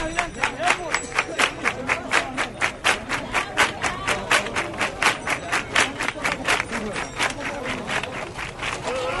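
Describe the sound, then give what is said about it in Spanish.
A crowd of pilgrims claps in a steady, quick rhythm to urge those walking ahead to a faster pace, sharp bright hand claps repeating about three times a second throughout, with murmuring voices underneath. “Escuchamos cómo los peregrinos van animando con las palmas para que vayan los que van por delante a un paso más fuerte.”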